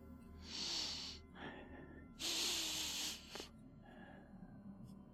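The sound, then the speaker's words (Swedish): A voice imitates sniffing, with two long, hissy inhales and shorter snorting sniffs in between, fairly loud, like someone smelling around for something. “ljudet av någon som verkar lukta efter någonting.”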